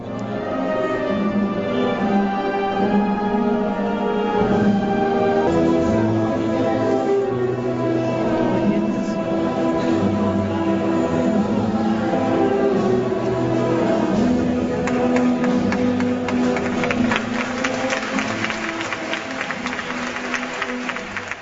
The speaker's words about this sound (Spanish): Curioso el de la marcha del Santísimo Cristo el Desamparo y Abandono sonando dentro de las naves de la catedral con ese aplauso eh, que quizá no proceda en una estación de penitencia de tarde, noche de Viernes Santo